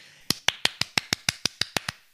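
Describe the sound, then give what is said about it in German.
A small round of applause: about eleven crisp, sharp claps in a quick, steady rhythm, bright and snappy, lasting around two seconds with no voices. “Kleiner Applaus an der Stelle für uns, würde ich sagen.”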